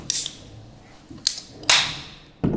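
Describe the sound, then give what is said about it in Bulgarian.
A beer bottle cap is pried off: a few sharp metallic clicks and pops, then a bright, quick hiss of escaping gas, with no talking. “Ага, ще си дойдем на думата и ще се поразчупим и поразкършим, отваряйки си по една бира, така като гледам.”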